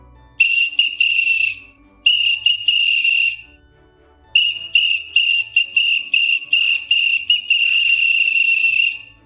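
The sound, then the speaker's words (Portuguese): A shrill whistle blown in long, sustained blasts, first two stretches with a short break, then a longer run of rapid trills and pulses, loud with no talking, blown to signal the group to finish the piece. “Qual é o apito mais usado? É o quando a gente vai finalizar a peça, né? Eu apito.”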